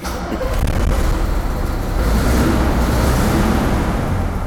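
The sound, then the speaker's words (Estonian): The diesel engine of a restored Ikarus 256 bus rumbles loudly and steadily, a dense low drone that holds at an even level throughout without pauses or voices. “astume nüüd tõenäosusega siia bussi, Ikarus kakssada viiskümmend kuus on tal ees ja vaatame, kas ta võtab siis eluvaimu ikka sisse ka pärast restaureerimist”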